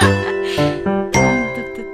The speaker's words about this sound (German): mache ich kurz einen Werbejingle.